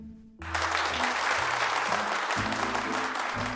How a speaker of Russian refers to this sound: А вдруг весь зал наполнился оглушительными аплодисментами.